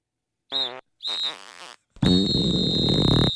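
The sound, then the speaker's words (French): Three fart blasts that shriek like a referee's whistle, a shrill steady tone over a raspy flutter. Two short bursts come first, then a longer, louder one. No one speaks. “Quand que je pète, ça fait ça.”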